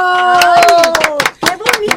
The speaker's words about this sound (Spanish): Ayúdenme a darle un aplauso a mi querida Paulina Mercado